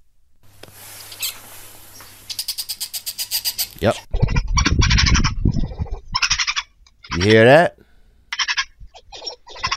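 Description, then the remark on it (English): Badger vocalizations: a rapid, rhythmic chattering that gives way to loud squealing and warbling calls with rising and falling pitch. A person briefly speaks at the start. “Um, and so I, uh, I was list, I was started looking up different animals sounds on the YouTubes, and what I found that it was was a badger.”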